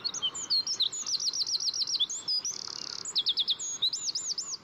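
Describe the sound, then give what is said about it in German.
A tiny songbird, no bigger than a small child's hand and weighing just under ten grams, sings a loud, rapid trilling song that can be heard up to 500 meters away. High, repeated chirping notes come in quick bursts, with a brief buzzy rattle in the middle, continuing without pause and with no talking. “Bis zu 500 Meter weit kann man seine schmetternden Trillermelodien hören.”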